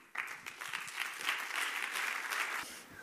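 An audience claps steadily for about three seconds, a dense, crackling wash of many hands that starts abruptly, holds an even loudness, then tapers off near the end. No one speaks.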